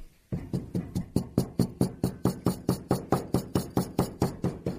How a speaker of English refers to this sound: bangs his glass on the table